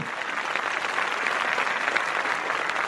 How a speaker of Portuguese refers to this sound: Eu quero pedir uma salva de palmas do editor